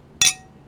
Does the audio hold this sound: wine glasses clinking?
yes